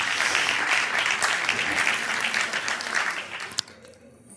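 An audience at an event of Toyota's 'Conduce como piensas' project with Cadena SER applauds with dense, steady clapping that holds for several seconds, then thins out and fades into quiet after a last few claps.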